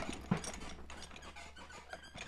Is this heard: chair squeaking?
yes